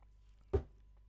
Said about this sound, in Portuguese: vou beber um, go, um golinho de água.